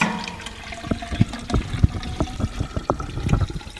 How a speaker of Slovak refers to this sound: Teraz to idete prelievať do čo? Čo je toto? To je merný, odmerný valec.